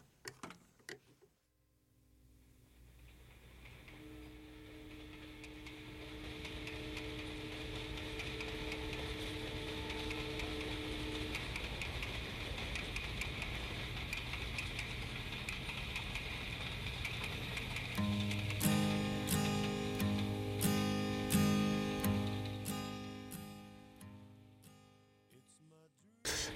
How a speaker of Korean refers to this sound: 기차 소리가 참 뭐 아련하죠. 예. 느낌 예전 추억을 이렇게 떠올리는 것 같습니다만